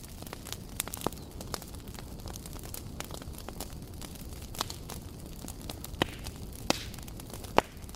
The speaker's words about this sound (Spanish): Cuando son las 22 horas con 15 minutos, salimos al exterior del estudio de modo radio y prendimos la fogata.